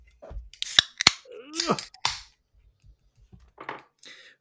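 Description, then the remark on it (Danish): A Harbo IPA beer can being opened: a few sharp metallic clicks from the tab, then a short fizzing hiss and some faint rustling handling sounds, fairly loud with no talking. “Lad os åbne yes. den.”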